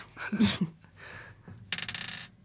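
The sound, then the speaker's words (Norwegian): A die clatters onto a hard table, a sharp knock followed moments later by a quick run of rattling bounces that tumble and settle, fairly loud, with no talking. “Ja, uh, eh, ikke svare og riks terningen før du”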